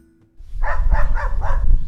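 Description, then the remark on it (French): A dog at the Domaine de la Grangette wine estate barks four times in a quick, even series, loud, over a low outdoor rumble like wind or handling noise. “Bonjour le chien.”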